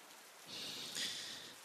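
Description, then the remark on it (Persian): Steady rain patters onto the ground, a dense hiss of countless small drops that swells slightly after the start and holds constant, with no voices present. “سکوت بر همه جا حاکم بود فقط صدای نواختن قطرات باران بر روی زمین به وضوح شنیده میشد”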